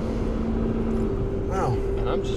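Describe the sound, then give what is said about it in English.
Steady, loud engine and road rumble from a car driving in traffic, with a constant low hum throughout and a brief voice-like sound near the end. “driving. Where did all these traffic?”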